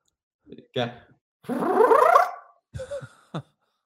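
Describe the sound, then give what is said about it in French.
A voice imitates the sound of Mario spinning around in a Super Nintendo game: a few short vocal blips, then a long, warbling whoosh lasting about a second, trailed by brief sputtering mouth noises. “Il y a un son que j'aime particulièrement faire. Mmh Et le bruit de. Euh, tu sais, quand Mario tourne sur lui-même au, Super Nintendo.”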